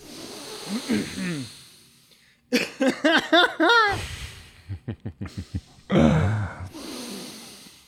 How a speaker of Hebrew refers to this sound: אוקיי, עכשיו אנחנו נעצום עיניים, ננשום נשימה, ואז כשאתה תיתן גונג, mm.